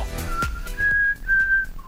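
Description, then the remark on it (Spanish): Someone whistles the short four-note Hunger Games whistle, clear and fairly loud. The notes are held, the middle two longest, with a lower final note and no talking. “ya me salió el silbido de los Juegos del Hambre.”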